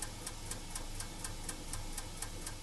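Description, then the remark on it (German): The Z3 relay computer, built from 2,600 telephone relays and controlled by hand-punched paper tape, clicks in operation in a steady, rapid rhythm, about four clacks per second, over a constant soft whirring hiss. Quiet and mechanical, with no voices. “Im Betrieb hört man nur ein leises Rauschen und Klacken.”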